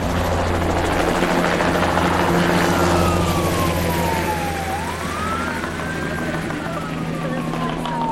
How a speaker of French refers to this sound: L'hélicoptère que nous entendons ici est un hélicoptère de la police qui vient de la prison voisine de Nesvei-Koyotl et surveille les tiraderos en pour les amener à quitter les lieux, à quitter cet endroit, à aller plus loin